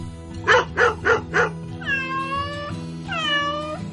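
A cat meows, first in four quick, clipped bursts, then in two longer, drawn-out wavering meows. The sound is clear, with no one talking.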